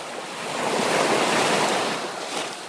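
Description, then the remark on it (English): Steady wash of Lake Victoria's waves breaking in the distance in Uganda, heard from afar at a wildlife conservation education centre near Kampala, a broad hissing surge that swells and recedes over a few seconds, with a faint wind rush and no voices. “Loud sounds of water waves of Lake Victoria, heard from afar, welcome you to Uganda Wildlife Conservation Education Center.”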